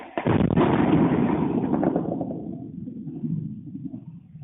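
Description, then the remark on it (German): Ukrainian air defense firing at a swarm of Russian attack drones, filmed by residents of the Romanian village of Plauru on the Romanian-Ukrainian border: sustained bursts of rapid gunfire, dense rattling shots merging into a continuous roar for about two seconds, then fading into a softer, uneven crackle of continued firing. “Russland attackiert die Ukraine mit einem Kampfdrohnengeschwader. Die ukrainische Luftabwehr hält dagegen.”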